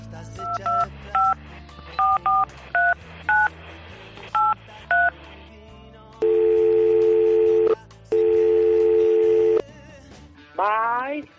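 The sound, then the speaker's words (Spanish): A phone number is punched in with about a dozen quick keypad beeps, followed by two long ringing tones and a short rising electronic warble at the end, loud. “Pues eso me preguntaba yo y les pegué un telefonazo.”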